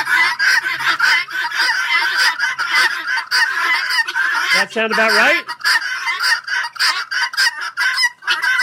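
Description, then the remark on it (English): A flock of guinea fowl calls nonstop in loud, harsh, overlapping squawks and chatters, dense throughout, with a brief spoken question slipping in near the end. “she just wanted me to play this anytime the word guinea came up”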